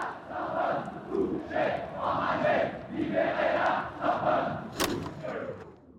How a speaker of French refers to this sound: Vous entendez les CRS qui crient pour s'aider mutuellement, mais vraiment, c'est une scène d'émeute extraordinaire.